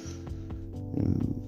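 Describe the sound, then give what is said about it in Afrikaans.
A sheep bleats from some distance away, one drawn-out wavering call that swells and trembles near its end, with no one talking. “Jy hoor die geblaar van ver af.”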